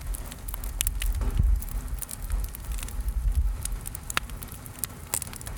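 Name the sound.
campfire crackling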